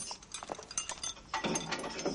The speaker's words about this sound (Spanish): Varios soldados recorren las mazmorras de la Torre Antonia. Se detienen ante la puerta de una celda que abren.